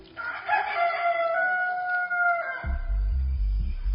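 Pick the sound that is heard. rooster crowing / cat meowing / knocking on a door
rooster crowing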